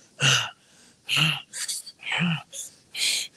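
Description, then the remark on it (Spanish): A voice imitates someone's heavy breathing from a video, right into a microphone: a series of loud, hissing puffs of air, about six in a row with short pauses between them. “Analicen por favor la respiración”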